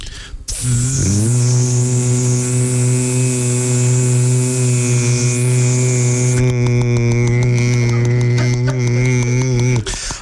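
A steady, low droning buzz held for nearly ten seconds, rich in overtones and slightly wavering, like a chorus of voices humming in imitation of swarming mosquitoes, presented as a chorus of the mosquitoes of Mount Athos.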